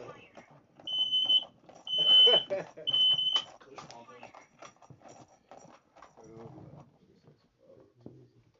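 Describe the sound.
A smoke alarm chirps three times in a steady, evenly spaced pattern, its shrill high-pitched beeps rising over people talking and laughing before fading into continued chatter.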